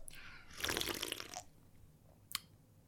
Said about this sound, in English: Oh. So you took your own advice, re the wine slurp. Yeah, figure it. And by see, I mean here, very loudly here.